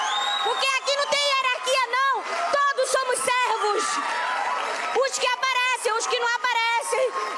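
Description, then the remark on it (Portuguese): An audience erupts in loud, sustained applause, a round of applause for the people being honored as heroes, mixed with cheering and high whooping shouts, a dense, continuous roar of many voices that stays strong for several seconds. “Vamos dar uma salva de palmas para esse povo, gente!”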